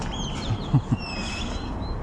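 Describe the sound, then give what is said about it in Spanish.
Small birds chirp and tweet faintly against a steady outdoor background hiss, with a few soft low thumps near the start, heard from a roof garden being built at a house. “sí, ahorita se escuchan los pajaritos y acá todo rifado.”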